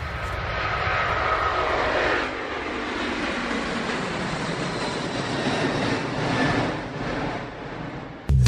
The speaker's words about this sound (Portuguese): Esse avião tava tava sobrevoando legal.